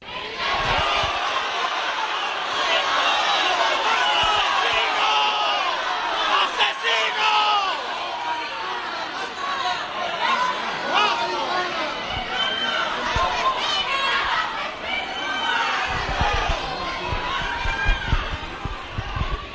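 An angry crowd of citizens shouts and jeers continuously outdoors at detainees arriving at the courts of Prado de San Sebastián in Seville, many overlapping voices yelling at once, loud throughout with no pause in the clamor.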